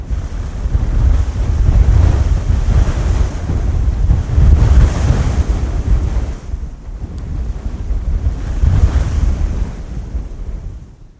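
Sea waves and surf roll in continuously, a loud, dense wash of water with deep rumbling swells rising and falling in waves, mixed with gusty wind buffeting. No voices are heard.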